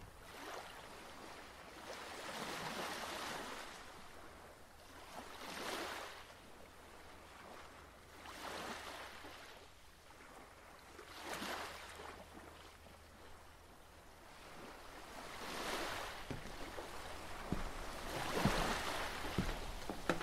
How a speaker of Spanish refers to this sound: crece la marea, se agitan las aguas y la barca se mueve con fuerza. El fuerte viento no nos deja acomodar las velas.